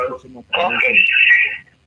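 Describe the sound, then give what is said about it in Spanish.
A voice comes through a thin telephone line, then a loud, smeared, ringing tone swells over it, as if the caller's radio is feeding the broadcast back into the call and echoing. “Bájale a, a tu radio, …, para que no se repita el eco”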